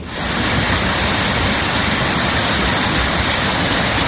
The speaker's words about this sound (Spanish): Por ejemplo, el Parque del Soto totalmente anegado por la crecida o el puente romano de Ávila soportando las embestidas del caudal.